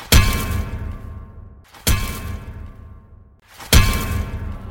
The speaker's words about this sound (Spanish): Y de pronto, notamos un golpe seco en varios puntos de la nave.